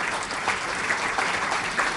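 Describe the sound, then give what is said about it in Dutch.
Steady applause from an audience at the end of a Denkgelag debate, a dense wash of many hands clapping at an even, moderate loudness with no voices standing out. “Dames en heren, ik vraag u een groot applaus, want ik vond het eigenlijk een heel interessant debat.”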